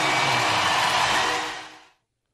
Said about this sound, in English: Hey, Bill's Mafia if you need him. Listen, if you can't respect that or even have that fire you up, I'm not sure what will. We're talking about the Bills Mafia screaming their lungs out during an exhibition game.